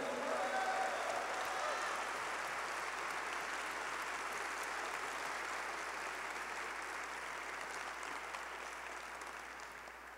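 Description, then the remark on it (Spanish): A crowd applauds loudly and steadily, a dense wash of clapping that holds for about ten seconds and fades slightly toward the end, with no voices standing out, as worshippers clap for Christ, the king, during a Christian sermon. “Vamos, si vas a aplaudir, apláudele fuerte al rey.”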